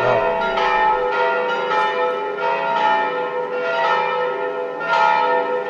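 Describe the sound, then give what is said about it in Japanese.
Church bells of a church near Piazza Navona in the old town centre of Rome, Italy, ring the Sunday noon peal continuously with overlapping strokes, a dense, resonant peal that swells and fades in waves, loud, with no voices. “これはあのローマの、えー、旧市街あの、まあ、中心部なんですけれどもそこにあのナボーナ広場という、まあ、観光地としても有名な広場がありまして、その近くにある教会の鐘の、えー、日曜日の正午の鐘の音を、えー、録音してみました。”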